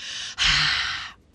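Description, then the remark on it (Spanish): An audible breath through the mouth during a breathing technique: a short airy intake, a brief pause, then a longer breathy exhale with sound that fades out after about a second. “O el de la boca, porque tú oyes que te dicen que exhales y que sueltes el aire con sonido.”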